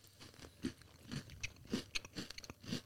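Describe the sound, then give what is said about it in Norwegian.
Crisp crunching as someone chews a snack, with repeated bites landing roughly every half second. No one speaks. “Ja, crunchyen er god.”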